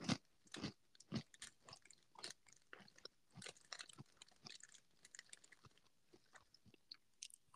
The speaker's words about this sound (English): Now what does a hungry, podcaster yeah. sound like while eating Cheetos? Wait, why are you eating Cheetos again?